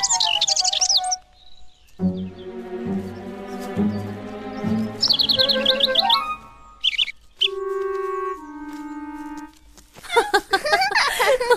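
Small birds chirp in quick, high-pitched bursts at several points, with a melodic stretch of held, mellow tones in between and a busy flurry of chirps at the end.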